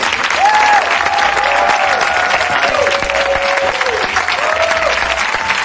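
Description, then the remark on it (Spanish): An audience on a show applauds Nacho Vigalondo steadily and loudly from start to finish, a dense wash of clapping with a few thin whistle-like tones drifting over it. “Un aplauso para Nacho Vigalondo.”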